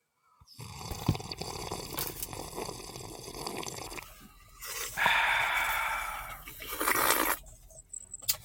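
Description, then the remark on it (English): Loud, airy slurping as hot coffee is sipped: a long noisy draw, a pause, then two more hissing slurps, with no talking. “And join us in this sip of cafecito.”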